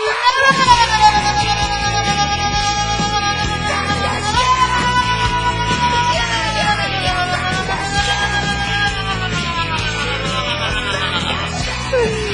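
A group of voices yells together in a loud, sustained shout that rises and falls, filling the whole stretch without a break, energetic like a crowd cheering in unison.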